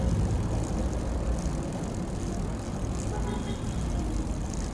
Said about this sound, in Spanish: Bueno, de pronto por el tráfico no nos dejan circular. De pronto también la cuestión de los semáforos, ¿no?